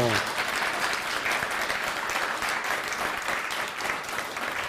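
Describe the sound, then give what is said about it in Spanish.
Sustained audience applause for the United States, a dense, steady patter of many hands clapping at an even loudness throughout, with no break or swell. “Un aplauso para Estados Unidos, fuerte, eso.”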